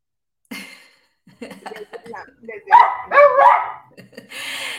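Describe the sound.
A dog barks several times in quick, loud bursts, with people talking around it and a brief burst of noise at the end.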